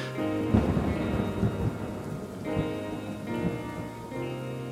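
A thunderstorm rumbles with deep, rolling thunder over steady rain, low booms swelling and fading several times across a continuous wash of rainfall. No voices.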